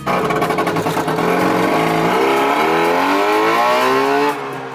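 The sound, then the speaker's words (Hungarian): A plastic-bodied Trabant car's engine runs loud, its buzzing two-stroke pitch climbing steadily as it revs up, then cutting off abruptly near the end. No one speaks. “Persze ez nem egy igazi műhold volt, hanem egy műhold nevű autónak nevezett műanyag jármű, vagyis egy Trabant.”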